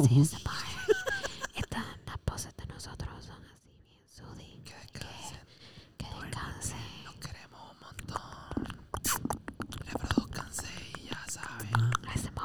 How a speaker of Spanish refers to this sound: ASMR, ASMR. Mucho cariñito.